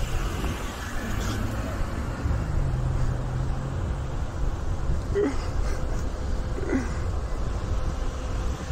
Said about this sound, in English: Here, come on, we can walk back up to the front. There's too many cars passing.